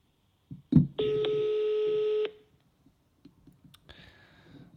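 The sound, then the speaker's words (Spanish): An outgoing phone call rings out through a speakerphone, the phone propped in a glass: a soft tap, then a steady electronic ringback tone for over a second, a pause, and the next ring starting. No one speaks. “Vamos a llamar. Y llama. Altavoz.”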